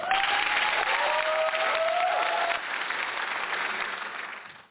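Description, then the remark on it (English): A crowd claps steadily for several seconds in a round of applause for a guest introduced as a freedom fighter, a dense patter of hands with a brief whistle rising over it early on, before the applause thins and fades out at the end. “Big round of applause for this incredible freedom fighter.”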